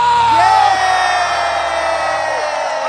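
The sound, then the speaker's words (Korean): A crowd in Yeonggwang, South Korea, cheers and shouts loudly at a live KBS Cool FM radio show, Mr. Radio, in a sustained roar, with whoops and high yells layered over a dense wash of voices that stays strong throughout. “아유 반갑습니다 여러분 영광 소리 질러”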